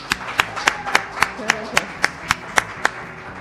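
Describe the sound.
Audience applause for a guest, in a steady, even rhythm: about a dozen sharp claps at a quick regular beat, fairly loud, with a faint voice briefly murmuring underneath partway through.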